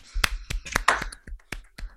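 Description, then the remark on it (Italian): A single pair of hands claps about seven or eight times in a steady, fairly quick rhythm, each clap sharp and bright, with brief quiet gaps between them, as applause for the return of the Zona Rossa. “Prima di iniziare vorrei fare un applauso al ritorno della Zona Rossa.”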